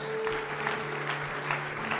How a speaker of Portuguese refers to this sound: Vamos aplaudir nosso Deus, vamos.